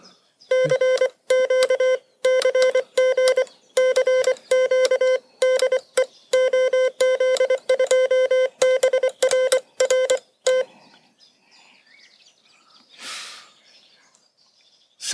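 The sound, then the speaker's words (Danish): Morse code tones tap out a CQ call: a loud, steady beeping pitch keyed in quick dots and dashes for about ten seconds, then quiet with a faint breathy rustle. “Men i bund og grund, så sidder man jo stadigvæk og sender prikker og streger til hinanden.”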